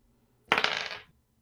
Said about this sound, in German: Ich kann ja schon mal würfeln. Du kannst ja, schon mal gerne.